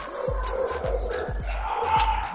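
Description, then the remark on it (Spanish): Dogs fighting in a house, scuffling and snarling, with a rapid run of sharp growls and yelps tumbling over one another in short, overlapping bursts. “Pues viendo cómo se pelean los perros en tu casa.”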